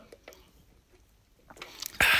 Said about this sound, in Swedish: en klunk eh, läskedryck här.